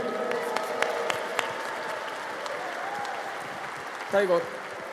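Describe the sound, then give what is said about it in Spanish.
An audience at a church service gives a loud round of applause to the King, clapping steadily and densely for several seconds, a warm wash of many hands with a few sharper claps standing out, and a brief shout rises near the end. “Dale un fuerte aplauso al rey.”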